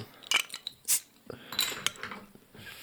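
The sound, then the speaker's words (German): Glasses clink together in a toast to health: a few bright, high-pitched chimes, one ringing clearly, mixed with softer clattering and handling noises. No one speaks. “Wollen wir erstmal anstoßen?”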